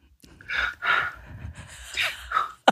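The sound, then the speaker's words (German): A person acts out a series of sharp, gasping breaths, four or so quick inhales and exhales in an uneven rhythm, with no words spoken, demonstrating breathing sounds made when dubbing film. “ich meine, wenn du so freie Geräusche machen kannst, es geht ja noch so atmen.”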